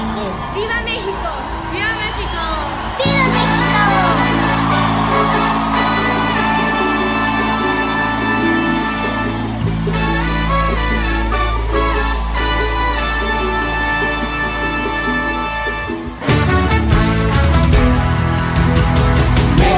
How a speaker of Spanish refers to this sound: esta canción que le hicieron a … que lleva por nombre …. Creo que es una atinada versión